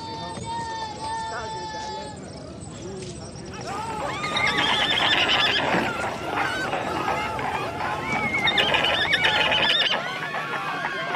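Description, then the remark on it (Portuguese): A horse whinnies loudly and repeatedly with high wavering neighs, while hooves clop underneath along with some background voices. “Acabou de passar por mim uma criatura mistura, um ser, uma mistura de homem com cavalo, ela tem patas.”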